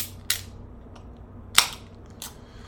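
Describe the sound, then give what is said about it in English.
A can of beer from a brewery in North Vancouver, BC is cracked open: a few sharp metallic clicks and snaps, the loudest followed by a brief hissy fizz, over a low steady hum with no talking. “Um, but anyways, I am going to crack a beer.”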